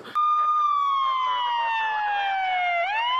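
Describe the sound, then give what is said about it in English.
A loud siren wails steadily, its tone sliding slowly downward before sweeping back up near the end, with faint crowd-like murmur underneath. “we cut to it the alarm starts to go off”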